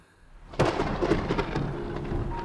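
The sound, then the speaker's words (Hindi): A sudden thunderclap breaks in after a quiet moment, followed by a steady, dense roar of heavy rain, big raindrops pouring onto a broken-down car stuck on a dirt road on Kanchan hill in Ooty amid lightning, with no voices. “बिजलियों का तांडव शुरू हो चुका था तेजी से गिरती बारिश की बड़ी बड़ी बूंदें कार पर गिर रही थी”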